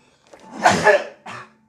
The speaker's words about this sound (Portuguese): Com esse espirrão que ele deu, hum, já é melou aqui também.